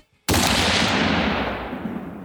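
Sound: gunshot sound effect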